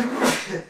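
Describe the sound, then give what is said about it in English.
A single short sneeze: a voiced intake that bursts into a loud, breathy, hissing release before trailing off, with no one speaking. “Bless you.”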